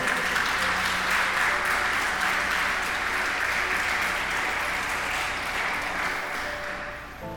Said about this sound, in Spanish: Vamos, dígame, amén, un aplauso al Señor, algo, por favor.